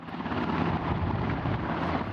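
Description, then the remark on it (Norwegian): A helicopter from the North Sea drones loudly and steadily as it comes in to land at Stavanger Airport Sola, Norway, its rotor and engine noise filling the air, with no voices present. “Nok et helikopter fra Nordsjøen inn for landing på Stavanger lufthavn Sola.”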